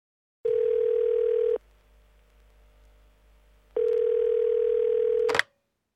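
A telephone line rings out on an outgoing call: two steady, loud electronic tones about a second long, separated by a pause, ending in a brief click as the call connects.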